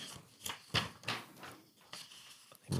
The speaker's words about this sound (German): umblättern. Jetzt habe ich dich. Da ist sie, da ist sie 81.